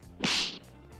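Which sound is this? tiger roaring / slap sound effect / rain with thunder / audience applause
slap sound effect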